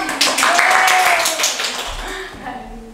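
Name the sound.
audience clapping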